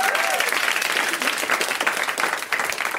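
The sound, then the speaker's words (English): An audience at a stand-up comedy show applauds steadily for about three seconds after the comedian says he bought a new house, dense overlapping claps forming a loud, even wash of sound with no one speaking over it. “Y'all can clap for that.”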